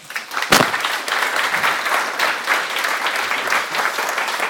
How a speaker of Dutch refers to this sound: Dames en heren, een warm applaus voor Ingrid Winterbach.